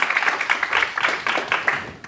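An audience at UTS gives a round of applause to welcome a speaker before an interview. It is a steady, dense patter of many hands clapping at once with no pauses, holding a fairly even loudness throughout the short burst.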